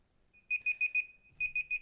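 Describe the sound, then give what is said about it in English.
A segment timer alarm goes off, sounding two quick sets of four high-pitched electronic beeps in a steady rhythm, clear with no talking. “Oh, we snuck that one in on time.”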